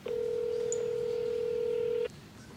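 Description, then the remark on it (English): A woman punches numbers into her cell phone in an office. A single steady electronic keypad tone holds clearly for about two seconds and then cuts off, leaving faint background hiss. “combs her fingers through the curls, and then punches numbers into her cell phone.”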